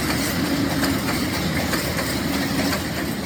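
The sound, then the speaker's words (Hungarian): A train rumbles steadily along railway tracks, the kind of noise feared by opponents of the southern ring railway (déli körvasút) development. It is a continuous low, dense roar with faint rhythmic clatter from the wheels, loud and unbroken for the whole stretch, with no voices. “Ilyen zajtól tartanak ablakaik alatt a déli körvasút fejlesztés ellenzői három, illetve négy sínpáron fognak dübörögni a vonatok, esetleg párhuzamosan több is egyszerre az ember konyhájában.”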